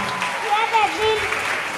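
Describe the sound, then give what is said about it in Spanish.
Steady crowd applause, a dense, even clatter of many hands clapping at once, with a few voices calling out over it. “Vale, le vamos a pedir al niño, un aplauso.”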